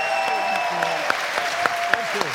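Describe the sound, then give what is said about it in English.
An audience applauds for the Goodies, a steady wash of clapping with a few sharper, louder claps standing out. Faint voices and a sustained tone murmur underneath. “Ladies and gentlemen, let's hear it for the goodies.”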